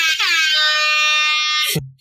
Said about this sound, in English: I gotta get the app. Hold on, baby. What's that? Air horn? Oh God.